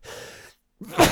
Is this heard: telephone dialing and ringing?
no